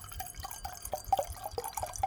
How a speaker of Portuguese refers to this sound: Vai encher seu copo de água e a gente volta. Ai, tá bom, vai, vou encher o copo d'água.